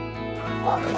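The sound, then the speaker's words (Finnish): Several husky dogs at a husky farm near Juuka, Finland, bark and yip together in a dense, overlapping chorus, loud, with high excited yelps rising over the clamour. “Millaisia työkavereita haskit ovat?”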